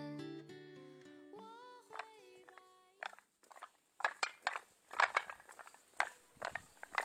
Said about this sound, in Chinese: 你现在听到的是我走在周庄小石板路上的声音，时间是晚上的十一点，街道上几乎都没有人了。我一个人迎着两边的灯笼，走在周庄古镇里的小巷中。这种脚步和石板接触后发出的清脆的声音一直伴随着我，这种清脆的节奏也穿进我的录音设备。